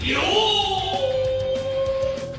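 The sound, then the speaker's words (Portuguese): A single muffled shout, one long held cry that starts high and slides down in pitch, lasting about two seconds over a dense, noisy background. “Eu agora com meu grito abafado novamente, de novo, outra vez aqui.”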